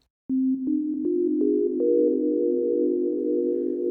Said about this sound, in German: Der künstliche Hall verlängert die einzelnen Töne quasi ins Unendliche. Es entsteht ein Cluster.